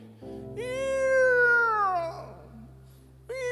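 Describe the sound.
A voice imitates the creak of an unlubricated wooden ox cart wheel: a long, loud, whining tone that rises, holds, then sags downward, followed by the start of another, over a low steady hum.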